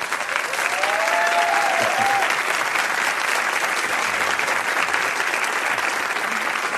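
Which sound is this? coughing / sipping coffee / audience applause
audience applause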